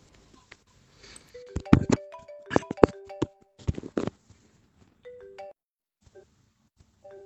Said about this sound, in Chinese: 亲爱的，你的电话响了，亲爱的。